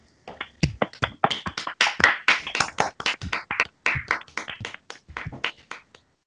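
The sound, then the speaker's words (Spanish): Hands clap steadily for about six seconds, a quick, slightly uneven run of sharp, bright smacks that stay fairly loud throughout, with no one speaking over them; applause welcoming a Melodifestivalen specialist on a show. “Aplauso.”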